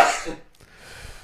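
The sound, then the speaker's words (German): A single sharp, explosive sneeze bursts out loudly at the start, then trails off into a soft, breathy exhale with no talking. “Äh, ich habe Niesen.”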